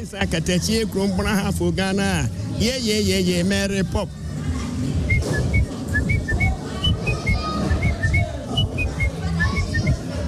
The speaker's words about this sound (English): He produces unique music in which he occasionally whistles.